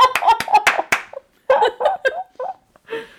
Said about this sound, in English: I just go around slapping the book.